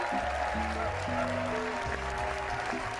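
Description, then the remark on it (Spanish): A steady wash of applause sound effect fills the whole stretch, loud, with a bouncy musical tune playing underneath the clapping. “Claro, faltaba de su lluvia de aplauso.”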